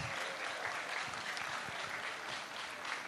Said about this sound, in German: Euer Applaus.